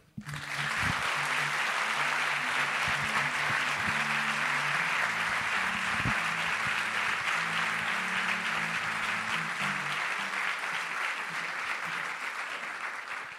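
Sustained audience applause, a dense wash of many hands clapping steadily at full volume for about thirteen seconds, with low musical tones underneath, before tapering slightly at the end.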